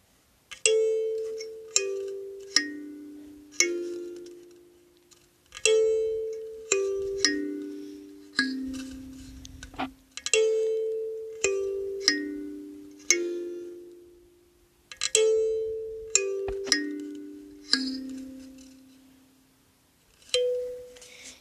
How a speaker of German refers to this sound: Ich spiele es gerade auf dem Daumenklavier. Sehr cooles Instrument.